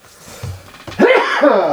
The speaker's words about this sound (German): Gesundheit, ja. Entschuldigung.